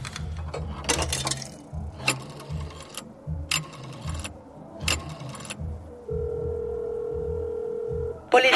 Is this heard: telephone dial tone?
yes